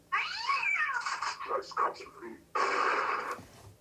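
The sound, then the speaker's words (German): A recorded cat meows loudly, played back through a speaker: a long drawn-out meow, a few broken yowling sounds, then a second strong meow that cuts in abruptly. “Ich habe ja einen Katzen-Sound gefunden.”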